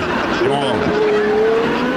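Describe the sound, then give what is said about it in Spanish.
A stolen car peels out loudly with a steady, high tire squeal and a roaring engine, sustained for about two seconds as a Brazilian thief speeds off in it. “Se llevó el carro.”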